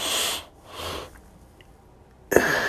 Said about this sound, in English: But for better sleep, he also mentions a breathing technique, taking two inhales through the nose for two seconds